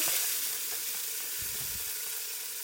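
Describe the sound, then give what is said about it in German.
Onion and bell pepper frying in a pan: a steady, bright crackling sizzle with a few soft low stirring thumps midway, no voices. “So, und da wird jetzt äh, das Gemüse angebraten.”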